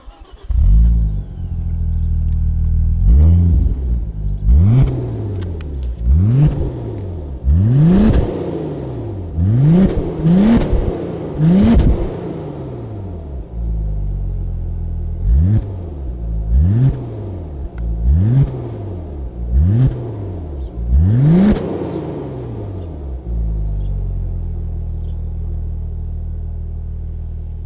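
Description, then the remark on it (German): An Audi RS 4 B5 engine revs repeatedly: about a dozen sharp throttle blips rising and falling over a deep, steady idle rumble, with no talking. “dann hören wir erstmal einen sonoren Klang.”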